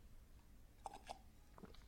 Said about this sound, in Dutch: Hè, een slokje water.